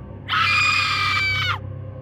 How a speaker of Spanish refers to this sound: Todo estaba muy oscuro y solo escuchamos un grito muy fuerte. Era un grito desgarrador.